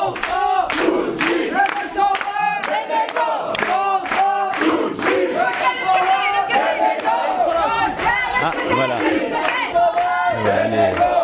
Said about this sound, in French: Alors les grévistes, très gentiment, on euh, bah, commence à donner leur slogan pour leur dire où ils sont.